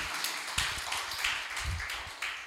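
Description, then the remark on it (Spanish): A church audience clapping together in steady, dense applause to welcome visitors, filling the whole stretch at a moderate, even volume, with a few sharper claps standing out and no one speaking. “¿Cuánto le podemos dar fuerte aplausos en esta hora a todos aquellos que nos están visitando?”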